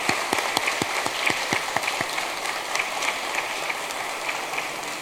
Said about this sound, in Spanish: Un aplauso para nuestra querida expresidenta María del Carmen Alba.